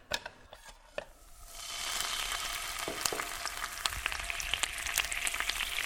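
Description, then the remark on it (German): A few light clicks and taps, then a bright, steady sizzle swells up as a ladle of pancake batter hits a hot frying pan for a thin, crepe-like pancake, crackling and popping with no one talking. “Tu mal mit der Keller ein bisschen Teig in die Pfanne.”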